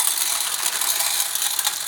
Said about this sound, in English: So you just pour some kernels